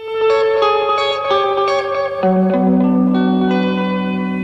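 Instrumental opening of a 1960s French rock song: twangy electric guitar notes ringing with heavy echo and reverb, a steady loud sequence of sustained chords sliding lower, with no singing yet.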